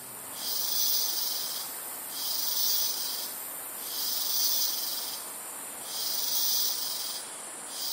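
Dense Amazon jungle field recording: a thick, constant wash of birds, insects and animals, with a high, insect-like chorus swelling and fading in a steady rhythm roughly every two seconds. No voices.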